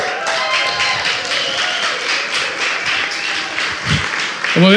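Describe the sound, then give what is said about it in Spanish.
Sustained applause from a crowd, steady and fairly loud, with many hands clapping at once in a dense wash for several seconds, and a brief voice rising near the end. “Como, decimos aquí, no dénselo a él, no dénselo a ella de aplauso.”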